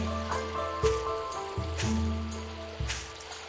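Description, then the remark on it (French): Steady rushing water of waterfalls and a cold, mountain-fed river in a forest of firs and cypresses fills the background with continuous hiss, while a low humming tone sits underneath and shifts pitch a few times. “Regarde les sapins, les cyprès et écoute les cascades.”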